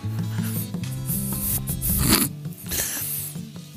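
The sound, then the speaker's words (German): A chainsaw, started up by a man while someone walks through Talle, revs unevenly, its low buzzing drone rising and falling in pitch, with rasping bursts of noise breaking through now and then, steady throughout with no one speaking. “Jetzt fängt er natürlich gerade mit seiner Kettensäge an, ist klar.”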